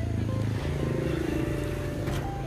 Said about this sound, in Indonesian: aduh banyak suara motor